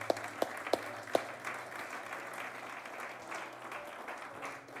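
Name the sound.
audience applause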